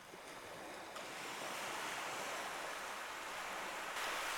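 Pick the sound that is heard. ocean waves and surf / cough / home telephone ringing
ocean waves and surf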